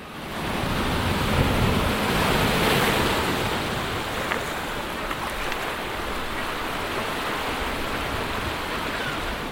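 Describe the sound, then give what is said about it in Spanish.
Waves crash and churn against a breakwater and the promenade at the mouth of the Urumea river in San Sebastián at autumn sunset, in a continuous, roaring wash, swelling slightly louder early on before settling into a steady rumble of surf with no voices. “Las olas rompen contra el espigón y el paseo nuevo.”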